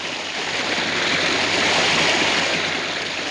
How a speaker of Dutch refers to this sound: En toen, uit die rots stroomde een beek vol heerlijk koel water in de woestijn.